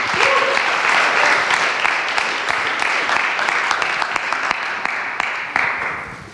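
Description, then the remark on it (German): Sustained audience applause welcoming a speaker at an evening talk in Stuttgart, a dense wash of many hands clapping at steady loudness, with a few sharper individual claps standing out before it gradually thins toward the end. “Einen großen Applaus”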